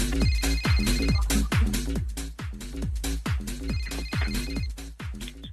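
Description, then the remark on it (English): A telephone rings during an outgoing call with a loud, repeating electronic tone pattern, each burst of bright melodic notes cycling steadily throughout, with no voices. “If you see a withheld number calling you, please answer it with oi oi!”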